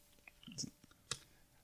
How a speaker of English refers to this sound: I'm gonna put my headphones on right now